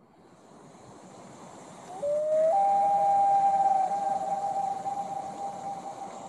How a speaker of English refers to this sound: seen got a loon, loon call